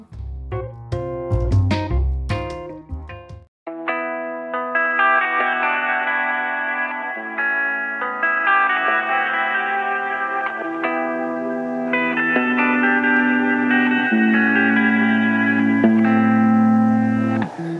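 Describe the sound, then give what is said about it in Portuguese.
A music track plays steadily, opening with punchy, percussive chords before settling into sustained, layered synth harmonies with echoing, chorus-like effects. Loud and continuous, with no voices. “Enquanto ouve as próximas duas músicas, observe o seu corpo e tente localizar algum desconforto durante a corrida.”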